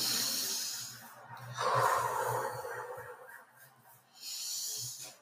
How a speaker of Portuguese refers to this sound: Respirando fundo dois. Respirando fundo três.